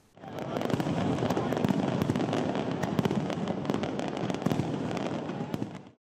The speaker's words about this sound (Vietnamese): Đúng không giờ ngày 1 tháng 1 2024, tràn dài pháo hoa vụt sáng cả bầu trời, biến không khí ở phố đi bộ Nguyễn Huệ thành phố Hồ Chí Minh trở nên ý nghĩa hơn khi hàng ngàn người cùng hò reo chúc mừng năm mới.